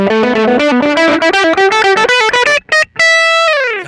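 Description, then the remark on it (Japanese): A voice drenched in echo and electronic processing chants in a rising, sing-song pattern, then holds a final bright, buzzy note that slowly trails away. “えー、エコーを入れてみました”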